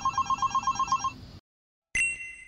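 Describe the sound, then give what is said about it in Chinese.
A telephone rings with a rapid, trilling bell pattern for about a second, then cuts off. After a brief silence, a short bright electronic tone sounds. No one speaks. “两天后，小榛果又再次接到对方打来的电话”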